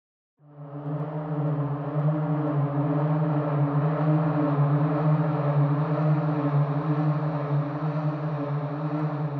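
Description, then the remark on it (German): A sustained synthesizer pad, the preset Nordic Winds, swells in quickly and holds a steady, low, droning chord with a breathy, airy texture. It stays at an even loudness with no voices. “Ich wähle mal das nächste Pad, Nordic Winds, und gehe wieder zurück.”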